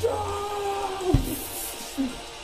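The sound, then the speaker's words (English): A voice imitates a guttural orc roar, a single sustained growling shout lasting about a second before cutting off abruptly, leaving only faint background noise afterward. “and just with this most guttural, awesome roar that you've ever heard a fucking orc scream out, he just shouts,”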